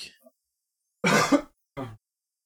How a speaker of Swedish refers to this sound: en hostning där.